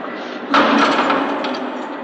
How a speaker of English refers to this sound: Better move out of the way there. He wants to lock that door